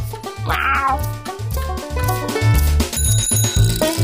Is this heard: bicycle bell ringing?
yes